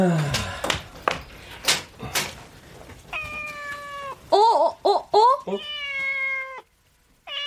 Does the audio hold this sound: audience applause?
no